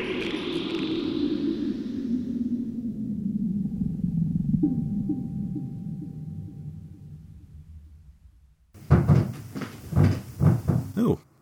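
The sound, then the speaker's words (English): A cat knocks several times in quick succession, a series of fairly loud thumps near the end, following a long, fading low rumble and hiss. “Is that you knocking?”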